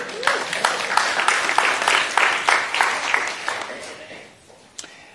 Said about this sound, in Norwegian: Kan godt gi han en applaus.